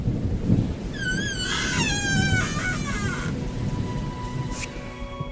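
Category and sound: nature, thunder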